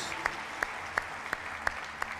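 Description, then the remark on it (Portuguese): An audience applauding for Jesus, with six evenly spaced, sharp claps struck together in a steady rhythm over a continuous wash of crowd noise. “Dá um forte aplauso aí a Jesus.”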